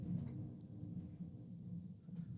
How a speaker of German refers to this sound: Oder, ui, hört man diesen Donner?